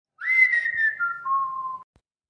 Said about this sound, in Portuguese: Porque de repente, do nada, ele assobiava e deixava quem estava passando por lá morrendo de medo.